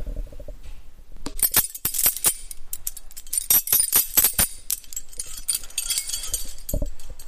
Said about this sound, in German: Sie tragen die Schlüssel. Sie sind groß, sie sind schwer, sie sind an einem riesengroßen äh, Metallring, also nicht so, dass ich sie in meine Tasche stecken könnte.